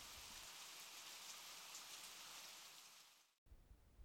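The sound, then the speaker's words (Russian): Steady, dense rain hisses evenly for about three seconds, then cuts out abruptly to brief silence before a softer wash of rain returns. No voices are heard. “Сегодня я научу вас, как специально вызывать дождь, чтобы сладко уснуть.”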